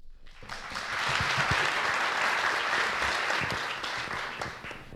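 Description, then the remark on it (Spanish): Sustained applause from a large audience in Mexico standing to welcome a guest, a dense steady wash of many hands clapping that swells quickly after a brief start and stays loud for several seconds before easing slightly. “Para dar una expresión a nuestro sentido de honor y privilegio, les pido le demos la bienvenida con un aplauso y de pie, si son tan amables.”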